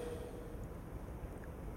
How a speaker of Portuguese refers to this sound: Pois, cá estamos nós no barco.